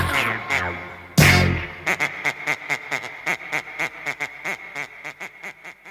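A brief loud burst gives way to a quick, steady run of nasal duck-like quacks, bouncing along in an even rhythm at a moderate level with no talking.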